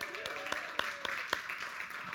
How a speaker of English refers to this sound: And kids, I think the kids need a round of applause.